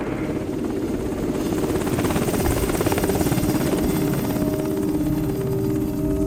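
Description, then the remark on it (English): Two Black Hawk helicopters thunder overhead above an ordinary Swedish suburb early one December 2022 morning, during arrests involving the military and security police, with a steady, loud rotor chop and a rising engine whine, the pulsing beat filling the air continuously with no voices. “Suddenly, two Black Hawk helicopters appear in the sky.”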